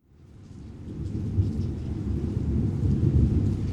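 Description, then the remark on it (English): Steady rain on a night in Hollywood in 1969 pours down in a dense, continuous wash, with deep rolling thunder rumbling underneath as the sound swells in from quiet and holds loud; no voices. “We open in a disco on a rainy night in Hollywood in 1969.”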